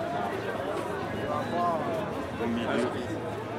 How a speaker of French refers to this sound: Euh, on, continue, on continue de traverser la foule qui est très compacte ici.